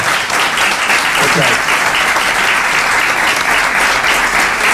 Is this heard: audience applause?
yes